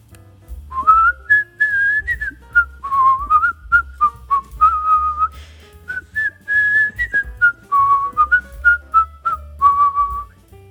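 Someone whistles a lively melody while washing customers' clothes in a small laundry, in short, bouncy notes that rise and fall around a bright pitch, with a steady low rumble underneath and no talking.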